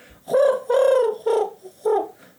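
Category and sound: vocal imitation, voice imitating pigeon cooing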